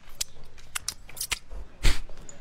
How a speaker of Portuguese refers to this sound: Aí vocês ficam lá com o dedo todo melado de cheddar digitando no teclado do computador, é isso? É, quer dizer. Não, não, doutor. Eu sempre dou uma lambida antes no dedo, né, ó.